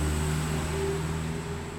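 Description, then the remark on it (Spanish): A car outside gives off a steady, droning engine rumble with a faint high whine above it, holding at an even, fairly loud level with no one speaking. “Dios mío, con estos carros.”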